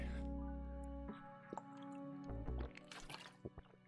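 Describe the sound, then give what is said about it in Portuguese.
Wet sounds of someone drinking water in a bedroom without a fan on a very hot day: a steady low hum, then brief gulps and small liquid squishes and drips, with no talking. “deixa eu tomar uma água aqui que tá fazendo 58 graus Aqui onde eu moro tá foda.”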